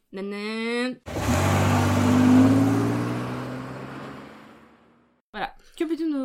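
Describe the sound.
A person loudly imitates a revving car with their voice, a rough roar that swells and then fades over about four seconds, with brief speech just before and after.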